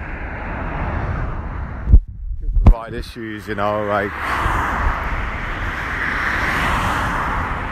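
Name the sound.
car interior road noise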